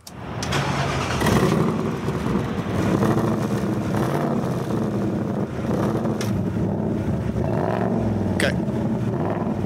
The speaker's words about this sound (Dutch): Dat geluid van de Mustang. Onze luisteraars hebben dat niet elke dag, dus ik help ze even op weg.